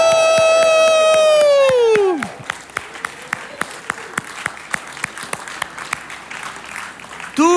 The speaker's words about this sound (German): Wollen wir mal aufstehen und dann zähle ich auf drei und dann gibt es einen vaterländischen, schweizerischen Jubelruf für unseren Gott im Himmel. Eins, zwei, drei. Juhu!